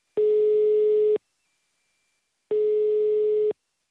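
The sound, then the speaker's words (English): Two steady, clear telephone ringing tones of about a second each, separated by a short pause, as heard when waiting on an outgoing call to a home phone number to connect; no voices. “I called their home phone number and his dad picked up.”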